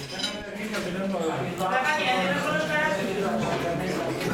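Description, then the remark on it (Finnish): Cups and glasses clink now and then, light and bright, amid a steady murmur of many overlapping voices, the chatter of a busy café at lunchtime filling the background throughout. “On lounasaika, kupit ja lasit kilisevät kahviloissa, lautasilta ahmitaan meren eläviä ja muita hörkkuja.”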